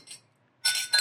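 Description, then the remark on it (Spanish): Glasses clink together in a toast: a soft tap, a pause, then a bright ringing clink followed quickly by another, crisp with no talking. “Salud.”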